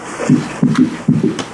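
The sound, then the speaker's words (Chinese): A fast, irregular heartbeat from atrial fibrillation: about six dull, low thumps in under two seconds, bunched unevenly with some pairs close together and others spaced apart, heard alone without talking. “有没有就相当的不规则又快？”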